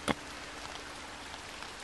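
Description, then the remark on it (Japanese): Steady, dense hiss of heavy rain pouring down that puts out a campfire, with a single sharper splash or tap near the start; no voices, the downpour fills the background evenly throughout. “あまりの激しい雨に私たちは大声で笑った口に雨が入ってきた”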